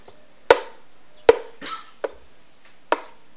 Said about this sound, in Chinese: 哇，是脚步声，有人来了，慢慢的、慢慢的朝这里走过来了。真没意思，又往别的地方走了。